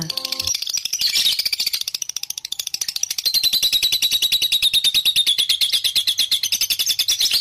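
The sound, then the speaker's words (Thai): A bird calls in rapid, continuous high-pitched chirps, a steady rattling trill that runs loud and unbroken, with a brief low tone at the very start and no voices. “น้องๆ ฟังเพลินใช่ไหมคะ ไม่เป็นไรค่ะ เดี๋ยวพี่เรามาจะแปลความหมายจากเสียงสัมภาษณ์ของคุณนก ให้น้องๆ ได้ฟังกันนะคะ”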